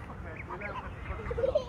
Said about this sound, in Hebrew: זה מהמם, רגע, אני אראה לכם, שנייה. אראה לכם, תעשו הפסקה בשביל ברווזים, תראו איזה יופי.